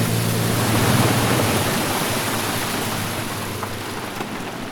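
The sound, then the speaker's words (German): A boat travels downstream on a river, searching for giant otters: steady, loud rushing water with a low engine hum underneath that fades after a couple of seconds, leaving an even wash of water noise. No one speaks. “Und wir fahren dann weiter flussabwärts, um tatsächlich Riesenotter zu suchen.”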